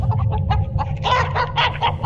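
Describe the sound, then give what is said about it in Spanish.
A rooster named Pacho clucks in a run of short, throaty bursts, growing louder and more insistent toward the end, over a steady low background rumble. “Mira, este es Pacho, el gallo mío.”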